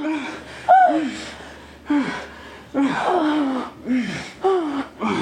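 A woman's breathless moans and sharp gasps of orgasm come in about five rhythmic bursts, fairly loud, with heavy panting breath between them and no speech.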